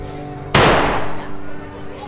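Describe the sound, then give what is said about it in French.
One loud shotgun blast from a sawed-off shotgun being test-fired in a cellar cracks out abruptly, aimed at old cardboard boxes with pellets flying in all directions, its boom rolling off in a decaying echo over a steady low background hum. “Ils testent l'arme dont le canon a été scié. À chaque tir, les plombs volent dans tous les sens.”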